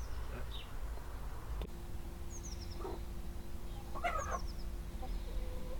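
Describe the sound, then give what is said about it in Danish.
Chickens cluck in short, scattered bursts inside a henhouse converted from a children's playhouse, with a few high chirping notes mixed in over a steady low background rumble and a faint hum. “nu skal det ikke øh, handle om høns det hele”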